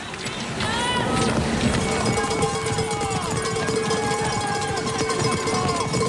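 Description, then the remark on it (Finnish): A steady series of sharp, rhythmic strikes, played on an instrument to mimic cross-country ski poles, dubbed over a ski broadcast of Krista Pärmäkoski skiing, runs throughout over a dense, hissy background with faint swooping tones. “Tässä Krista Pärmäkoski hiihtää ja kuuntelee ne sauvaiskut.”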